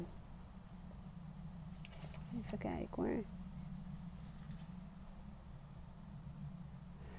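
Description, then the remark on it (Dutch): Paper rustling and a few soft page flips as a notebook is leafed through over a couple of seconds, with a person briefly murmuring in the middle against a steady low hum. “Even wat blaadjes omslaan.”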